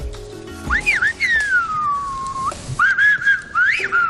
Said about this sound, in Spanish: Quizá ustedes ya lo sepan, pero el silbo gomero es el lenguaje silbado representativo de la cultura canaria. Es un auténtico em, encuentro, una, cosa absolutamente genuina, que está protegido además como patrimonio cultural inmaterial de la humanidad